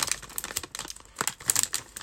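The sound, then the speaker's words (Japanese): A crinkly snack bag of edamame chips from 7-Eleven is cut open with a box cutter, with a quick series of sharp rustling, tearing bursts over about two seconds and no talking. “仕方ないからカッターで開ける。”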